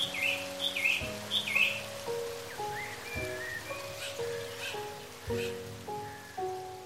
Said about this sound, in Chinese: 最后，他走到了深深的峡谷里。周围是那么安静，除了瀑布的声音和鸟儿的鸣叫，什么都没有。